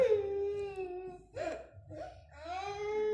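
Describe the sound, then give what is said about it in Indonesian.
A four-and-a-half-year-old child cries loudly and steadily in long wailing bursts, with a brief catch of breath midway before the sobbing resumes. “Nah, itu suara anak saya yang ke lima dia memang masih umur empat setengah tahun ya.”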